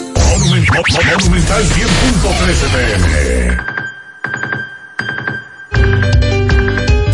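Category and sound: signal or alarm, alarm ringing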